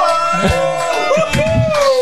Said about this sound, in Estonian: Äh, oleme heldekeses, äh, publik, tehke häält, et siis te tead, teate, vaatajad, et, et päris inimesed on yeah!